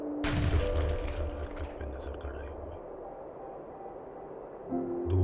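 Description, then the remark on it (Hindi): Distant machine gun fire echoes across a valley, rapid bursts and rolling low rumble that swell at the start, fade through the middle and rise again at the end. “आज फिर वादी में दूर मशीन गन फायरिंग की आवाज गूंज रही”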